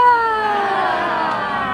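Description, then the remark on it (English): A yoga class screams together on the exhale while folding forward from chair pose, one loud, sustained wail lasting nearly two seconds, their overlapping voices sliding slightly downward in pitch. “On the exhale, when you fold, you're going to scream.”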